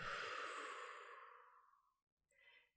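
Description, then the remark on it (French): A long, breathy exhale through the mouth after a held deep breath in a guided breathing exercise, loud at first and slowly fading over two seconds, followed by silence and a brief, softer breath at the end. No one speaks. “Bloquez votre respiration et soufflez pour diffuser cet air nouveau du haut de votre tête au bout de vos orteils.”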